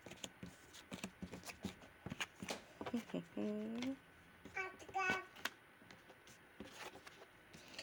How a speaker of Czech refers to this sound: Tak, karty teď otočím. Podíváme se teda, co tam máte.